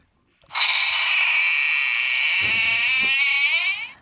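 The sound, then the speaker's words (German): A creaking door sound effect played on a sound machine: one long, loud, strained groan lasting a few seconds, buzzy and steady, wavering slightly near the end before stopping. No voices, nothing else underneath. “eine knarrende Tür.”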